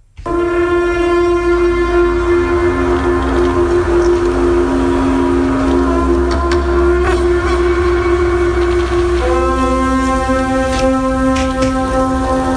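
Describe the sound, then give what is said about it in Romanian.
A reconstructed Celtic carnyx war trumpet blares one long, loud, buzzing drone rich in overtones, wavering and shifting pitch a couple of times over about twelve seconds, with no voices. “Și în atmosfera asta, înaintea bătăliei, de undeva din pădure se auzeau trâmbițele carnix ale celților și răcnete ale barbarilor, cum ar fi sus romani, și carnixul suna așa.”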